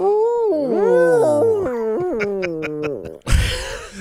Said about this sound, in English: That's what we need. We need more wounded wolf. That's the sound. That's the sad sound of a wolf in Hartford.